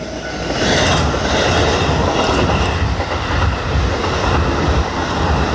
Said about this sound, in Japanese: まさに今ですね私のまさに今私の目の前を京成電鉄おっと今京成電鉄が走っていきまして今まさに踏切で私のあの移動が妨げられているんですが聞こえますでしょうかこのサウンド速くなってますねビートがビートビートパーミニッツ BPM が速くなってますこれはですねあの京成電鉄特有の踏切の、えー、速い速くなるってこの速い音なんですけど